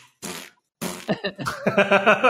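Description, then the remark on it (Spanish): Two short, breathy fart-like bursts are followed by a longer, wet, sputtering fart sound with a rapid flapping rhythm, loud, with no talking. “¿Estás seguro que la gente se va a reír con los pedos desde 2019?”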